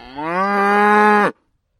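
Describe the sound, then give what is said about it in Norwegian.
A single loud, sustained moo from a cow in a herd of 90 on a regenerative, organic farm, steady and lasting just over a second before cutting off into silence. No one speaks. “En ny og viktig faktor i økosystemet på gården er besetningen på 90 kyr og en mengde møkkbiler.”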